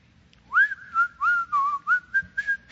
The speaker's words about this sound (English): I remember reading this when I was going to work in the secular field years ago, and I'd come in on a Monday morning whistling.